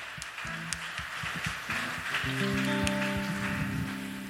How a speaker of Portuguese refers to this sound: E aplauda Ele mais uma vez. Mais forte as suas palmas.